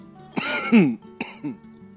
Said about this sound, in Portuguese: Em compensação, você tá, tossindo, tá, tá coçando até agora e não tá dando vontade de tossir